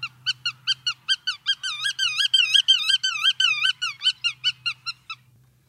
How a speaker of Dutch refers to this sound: En dat is volgende maand de... Grutto. De Grutto, inderdaad. En hier komt het geluid.